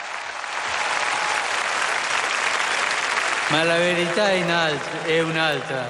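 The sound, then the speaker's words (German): A big crowd answering Pope Francis roars and applauds, then swells into loud, sustained shouts and cheers that rise and fall over the steady noise of the throng, sounding broad. “Jetzt sind die Rufe schon ein bisschen lauter.”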